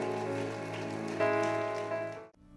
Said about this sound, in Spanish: Ese aplauso de alabanza al Señor, aleluya.